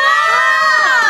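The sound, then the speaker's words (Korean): A crowd of fans gathered outside an open studio cheers and shouts continuously, many high voices blending into a loud, sustained roar with no pauses. “아, 효과음 아니고 진짜로 저기 우리 오픈 스튜디오 와주신 팬분들이 해주시는 들려, 소리입니다.”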